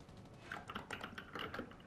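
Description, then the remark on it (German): Quick, uneven clacking of computer keyboard keys as someone plays a video game on keyboard, a burst of closely spaced taps pressed in rapid succession, fairly quiet and with no voices. “Du spielst jetzt ja auf Tastatur, ne?”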